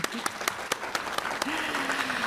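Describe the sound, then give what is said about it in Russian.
An audience breaks into steady applause for an active organizer of the project, a dense wash of clapping with a few sharper, louder claps standing out, and a faint voice rises briefly over it. “А, я э, не слышу аплодисментов, это ведь важно.”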